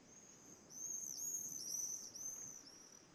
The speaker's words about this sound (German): Du hörst nur die beruhigenden Geräusche des Meeres. Hörst vielleicht noch ab und zu einen Vogel rufen.